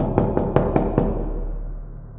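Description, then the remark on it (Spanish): Five quick, evenly spaced knocks on a door, firm, followed by a fading low hum with no voices. “Y el día que el invierno acabó y que yo esperaba dejar de sentir frío, se convirtió quizá en el día más frío de toda mi vida cuando volviste a tocar mi puerta.”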